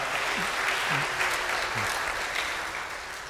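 A crowd claps steadily in a dense, even wash of applause that holds at a fairly loud level for a few seconds before easing slightly, with a few faint voices mixed underneath.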